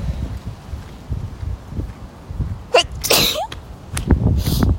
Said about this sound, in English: I have to sneeze. Oh god.